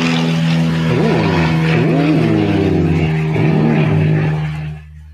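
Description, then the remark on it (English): A large airplane drones loudly overhead, its deep, steady engine roar carrying wavering propeller-like tones before quickly fading away at the end. “It's a big plane. Is that an army plane? Or Air Force?”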